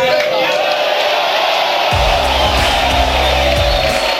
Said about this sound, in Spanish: Después de todo eso, hace su entrada triunfal bajo una ovación y una lluvia de papelitos, Diego Armando Maradona.